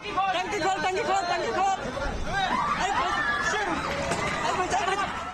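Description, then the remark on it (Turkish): A dense crowd of dozens of onlookers chatters loudly and continuously around a motorcycle burning after colliding with a car in Mumbai, India, some filming it on phones; many voices overlap into an excited babble, with a few louder shouts rising above the hubbub. “Ortada alev alan bir motosiklet, etrafında onlarca izleyici.”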